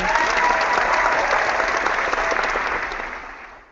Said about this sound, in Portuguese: Cara, para só um pouquinho, deixa eu pedir um pouco, uma salva de palmas para a plateia do Por Falar em Corrida.